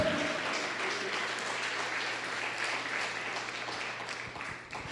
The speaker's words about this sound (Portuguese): Aleluia. Aplauda o Senhor mesmo.